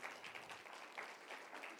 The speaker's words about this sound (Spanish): ¿Por qué no le damos un aplauso al Rey con todo nuestro corazón?